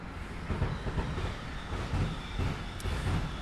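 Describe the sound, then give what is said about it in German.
A freight train on the freight bypass railway passes the old locomotive hall in Freiburg, Germany, rumbling with a steady low roar and rhythmic clacking of wheels over rail joints, continuous, with a brief high squeal near the end. “Ähm, hier fahren die ganze Zeit Güterzüge vorbei, aber das ist ja auch ein spannender Effekt.”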